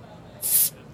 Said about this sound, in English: pop a bottle